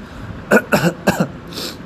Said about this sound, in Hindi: sorry सर्दी खांसी बहुत ज़्यादा है इसलिए माफ़ करना आवाज़ को लेकर भी माफ़ करना